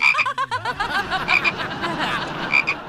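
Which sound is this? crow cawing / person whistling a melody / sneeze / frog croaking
frog croaking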